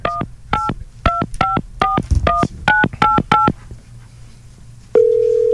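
A phone keypad is dialed to call back after a call was hung up: about eleven quick two-tone beeps in a slightly uneven rhythm, then a short pause before a steady, lower tone begins and holds. No one speaks.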